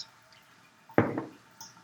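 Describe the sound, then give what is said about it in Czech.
Water hits a hot frying pan in one sharp sizzling burst that fades within a moment, with faint crackles before it and a small spit shortly after. “popravdě jsem si myslel, že to bude šíleně prskat, ale ono to no, prská až teď.”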